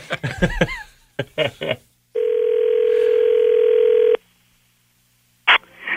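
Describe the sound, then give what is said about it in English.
A single long, steady telephone ringback tone sounds for about two seconds as a call is placed on the FM 96 morning radio show, following brief talk and followed by a short silence before a voice answers 'Good morning, CJOY.' “See if we can get them here. Do you think they'll answer this time?”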